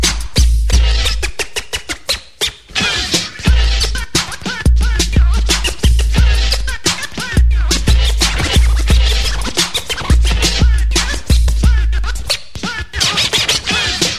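Rapid turntable scratching cuts back and forth over a heavy, steady beat, with sharp zipping strokes chopped in quick rhythmic bursts and booming bass hits underneath, loud throughout.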